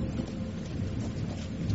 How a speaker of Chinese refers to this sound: 雷声越来越响，伴随着时不时出现于天际的闪电